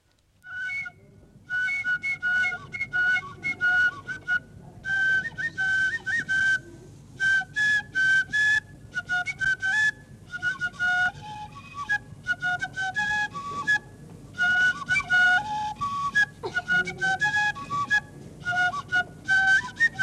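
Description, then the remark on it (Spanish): Traditional dance music from Tabasco for the entrance of the cojoes dancers in a tiger-hunting dance: a shrill, reedy flute plays quick melodic phrases in short bursts over a steady low drum, fairly loud, with no voices. “Aquí escucharán la entrada de los cojoes.”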